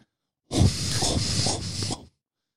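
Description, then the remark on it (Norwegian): A voice imitates loud, wet nasal breathing of a man eating, a sustained snorting exhale with hissy, rhythmic pulses lasting about one and a half seconds, alone. “Fordi faren til Joakim satt og spiste og pusta gjennom nesa i 1 time og 40 minutter.”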